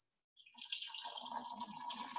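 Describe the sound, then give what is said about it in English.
Heated, filtered hot water pours steadily into a container holding one and a quarter cups of washing soda, adding a couple inches of water, a continuous splashing stream that starts abruptly after a brief silence and deepens in pitch as the vessel fills. “So I've got one and a quarter cup of washing soda in here, and I'm going to add a couple inches of hot water.”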